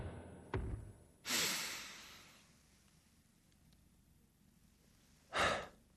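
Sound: deliberate deep breath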